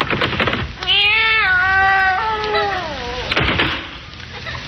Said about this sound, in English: There's nothing in there but a cat.